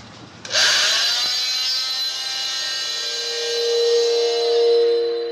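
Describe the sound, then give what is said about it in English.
A power saw used in an autopsy starts abruptly and runs as a loud, steady high-pitched whine, sectioning bone for several seconds with a slight rise and fall in strain. No voices are heard. “Commencing section of uh, bone.”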